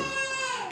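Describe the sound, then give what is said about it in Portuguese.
A boy's high-pitched scream from one of the bedrooms, one sustained shrill cry with a bright, strained tone lasting under a second. No talking is heard. “Se você ouvir qualquer grito ao fundo, é porque o”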